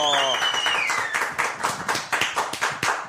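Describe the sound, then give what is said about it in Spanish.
Applause on a show breaks out in a steady, rhythmic run of sharp claps, opening with a high, sliding cheer or whoop from a voice before the clapping carries on alone. “Muchísimas gracias y un aplauso”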